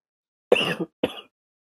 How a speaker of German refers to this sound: Ins Mikrofon husten. Ja. Ins Mikrofon husten. Entschuldigung.